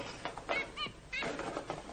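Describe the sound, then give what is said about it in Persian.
A canary chirps in a quick run of short, bright, warbling bursts, fairly loud, with brief pauses between phrases and no voices over it. “این قناری تو رو از زن و بچه و کار کاسبیت انداختن”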